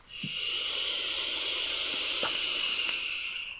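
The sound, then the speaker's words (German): A long, steady breathy hiss of someone exhaling vapor from a vape, lasting a few seconds, with a couple of faint soft clicks underneath. “Der ist am Vapen. Das ist nicht Rauchen, das ist Vapen, heißt ja.”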